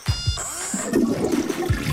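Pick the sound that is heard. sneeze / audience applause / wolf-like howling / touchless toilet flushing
touchless toilet flushing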